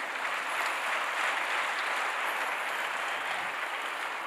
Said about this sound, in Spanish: Dale otro aplauso fuerte al Señor.